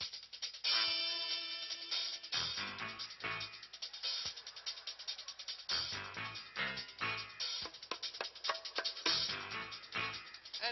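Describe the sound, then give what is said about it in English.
A dramatic courtroom-style TV theme tune plays on its own, with sustained tones over a steady, driving beat and sharp percussive hits, fairly loud throughout and slightly muffled. “This is, in some homes, there's a theme song.”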